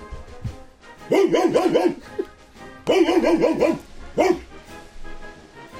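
An unleashed dog barks in quick bursts of several sharp, yelping barks, pauses, then barks again in another rapid run and once more singly, loud with no talking.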